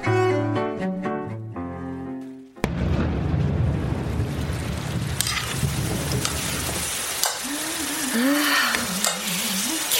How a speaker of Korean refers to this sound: 겨울비가 요란하네.